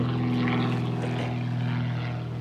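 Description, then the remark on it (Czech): A small propeller plane drones steadily overhead, its buzzing engine hum loud and constant, easing off only slightly toward the end. No voices are heard. “Je možná Igor, on lítá na tom... Možná tě slyší.”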